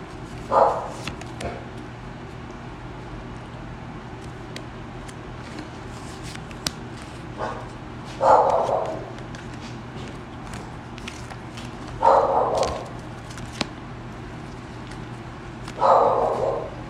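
A dog barks four separate times, single sharp woofs spaced several seconds apart, over a steady low hum with faint scattered clicks and shuffling.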